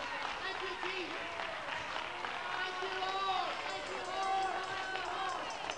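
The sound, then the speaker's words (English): A large church audience stands and claps steadily, giving the Lord a hand clap, and shouts all at once, many voices rising and overlapping in a loud, continuous wash of applause and cheering that fills the whole stretch. “Let's stand up and let's give the Lord a hand clap.”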